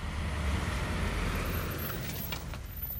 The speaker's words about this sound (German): Autos aus der Türkei fahren nach Griechenland und umgekehrt.